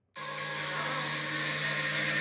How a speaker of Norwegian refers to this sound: Støvsuger.